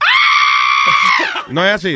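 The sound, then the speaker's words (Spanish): A person lets out a long, loud, sustained imitated scream lasting over a second, then breaks off into quick speech. “El grito, mira a ver si suena así más o menos.”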